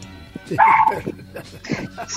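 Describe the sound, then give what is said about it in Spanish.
A small dog, Gigi, barks and yips in quick bursts at home, loud against the quiet, with a faint voice murmuring underneath. “Perdón por mi Gigi que está ahí ladrando, no la pude contener, estoy por acá en casa.”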